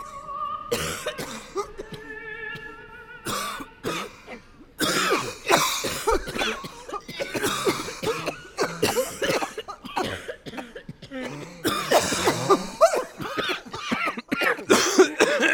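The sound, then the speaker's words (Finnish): An opera audience coughs repeatedly and overlapping during flu season, a ragged chorus of harsh coughs and throat clearing, growing denser over a sustained sung or instrumental tone at the start as Anna Netrebko, in the title role of Aida, begins "O patria mia". “Ja olihan hän upea, mutta esitys oli semmoisella flunssakaudella, että kun O Patria Mia alkoi, niin sieltä kuului Annan lisäksi semmoinen bronkiittikuoro sieltä yleisöstä.”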